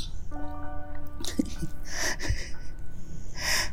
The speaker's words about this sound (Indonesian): dia tidur dong guys dan ngorok lagi nih ya Allah diceritain cerita hantu ngorok